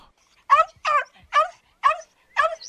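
A dog gives five short, evenly spaced barks with a high, whiny edge, close and fairly loud, with brief silences between them and no talking.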